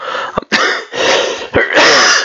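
Several loud, harsh coughs burst out in quick succession, with brief gaps between them and no talking.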